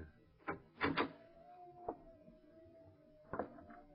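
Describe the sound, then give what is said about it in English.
A door handle rattles and clicks a few times, followed by a long, thin creak as the door swings open and a final solid clunk, fairly quiet. “Try the door, Lamont.”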